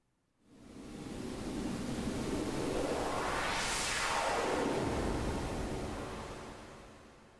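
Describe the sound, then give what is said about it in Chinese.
A steady rush of pink noise from an electronic instrument fades in and holds, while its EQ is changed to boost and cut certain frequency bands, a filtered band sweeping up to a bright hiss and back down, like whooshing surf. No voices. “那粉红噪音长什么样呢？我也稍微示范一下下。”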